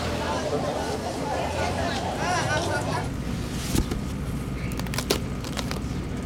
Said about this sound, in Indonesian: Ini AC nggak ada dingin-dinginnya, suaranya doang yang kenceng.